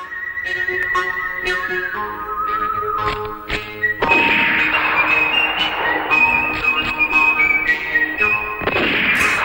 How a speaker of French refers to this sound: Ce qu'on entend là, en fait, euh, c'est pour une poignée de dollars qui est For a Fistful of Money, qui est un, film euh, qui est sorti en 1964 avec Clint Eastwood.